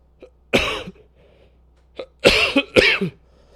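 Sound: cough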